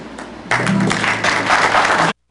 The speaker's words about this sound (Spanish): Sí, pueden aplaudir también ustedes en su casa, en confianza. Pueden aplaudir esta obra de Juan Roure. Vamos a aplaudirle aquí nosotros también.